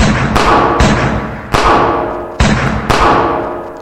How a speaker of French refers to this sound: euh, un coup de feu d'Eliezer suivi d'une dizaine de tous les autres qui sont autour.